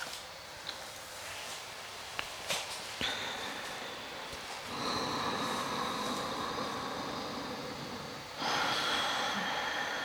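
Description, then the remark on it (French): A full breathing cycle through the nose during a breathing exercise: a long, steady hissing inhale followed by a louder, airier exhale, with no talking. “Je prends un cycle de respiration avant de refaire.”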